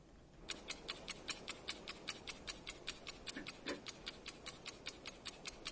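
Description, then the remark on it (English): A steady, rapid ticking, about four clicks per second, bright and sharp, runs continuously over a low background hum, like a mechanical countdown timer, started to time a tongue-twister challenge. “please start the timer.”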